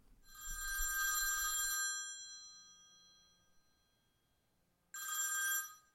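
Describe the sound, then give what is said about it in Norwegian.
A telephone bell rings twice with a bright metallic clang, the first ring long and slowly fading, the second starting after a pause of silence. No one speaks. “Vi ringer deg opp eh, litt senere for å høre hvordan det gikk.”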